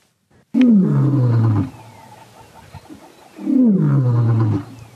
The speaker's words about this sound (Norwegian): Dette er Cecil, løven fra Vangi nasjonalpark i Zimbabwe en gang før juli i år.